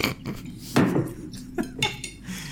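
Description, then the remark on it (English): Crinkly crunching of a scrunched-up post-it note held in the mouth, imitating chewing in a handful of irregular bursts over a couple of seconds, with no one talking. “I need to sound like I'm chewing, so I, I scrunched up a post-it note. But when I put it in my mouth”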